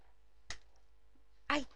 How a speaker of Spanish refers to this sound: esta silla me hace un ruido, chicas. Es increíble. me, pone nerviosa que haga ese ruido.